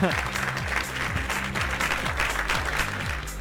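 Dense, steady applause fills the whole few seconds, loud and continuous, with a repeating low tonal pattern, like music, running underneath the clapping.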